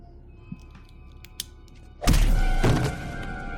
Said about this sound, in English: Okay, that's Anakin just punching him in the face.